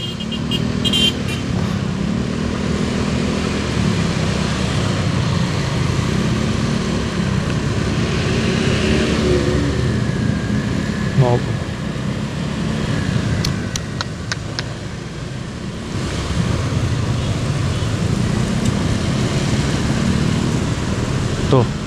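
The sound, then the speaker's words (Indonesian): Steady road traffic rumbles throughout, with idling engines, low motor drone and occasional passing vehicles in a congested stop-and-go traffic jam caused by a U-turn, continuous, while a voice talks intermittently over it. “Putaran balik lagi ini sebenarnya yang bikin macet tuh jadi gue paling gue paling benci banget ya sobat gue sama kalau macet tuh nggak ada penyebabnya gitu nggak jelas kadang-kadang cuma gara-gara putaran balik bangsat gitu”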